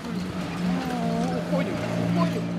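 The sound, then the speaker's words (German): A car passes on a dusty road in Solovetsky, raising clouds of dust, its engine and tire noise forming a steady, fairly loud rumble while people talk over it. “Bah unmögliche Staubwolken nach jedem Auto.”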